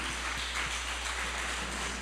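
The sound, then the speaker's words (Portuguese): A crowd claps steadily for a couple of seconds in applause to the Lord, a dense, even wash of many hands applauding together at moderate volume, with no voices standing out. “Aplauda ao Senhor, porque ele é digno.”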